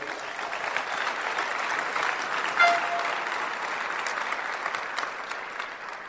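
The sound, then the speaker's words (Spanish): Steady audience applause in Panama for two people standing up fills the whole stretch, a dense even patter of many hands clapping at a moderate level, with one brief brighter tone rising near the middle and no voices. “Vamos a darle un fuerte aplauso a estos diamantes.”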